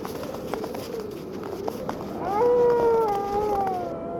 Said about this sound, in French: Oh merde. Oh, me dites pas qu'il y a des loups en plus.